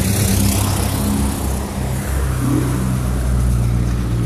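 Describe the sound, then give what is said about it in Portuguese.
A car accelerates in street traffic, its engine a loud, steady low rumble with a slight rise in pitch, set against a constant broad hiss of surrounding road noise and no voices. “barulho de trânsito, de pessoas, é a vida acontecendo, né?”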